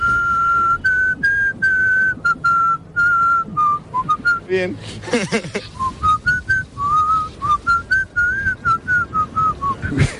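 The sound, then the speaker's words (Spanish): A person whistles a wavering tune in short repeated phrases, close and fairly loud, with a brief laugh and a few spoken words breaking in midway before the whistling resumes. “En alguna ocasión, no, no, no me refiero a lo de desfilar, sino a silbar, mejor o peor, oye, todos alguna vez hemos silbado. ¿Y a ti qué tal se te da, por cierto? Sí, silbar.”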